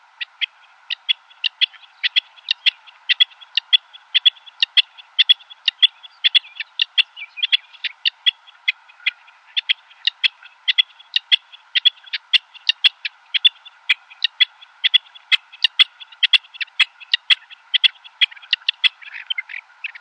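A rock partridge calls continuously in a rapid, rhythmic series of sharp, chattering notes, close and fairly loud, with a faint steady hiss beneath and no talking.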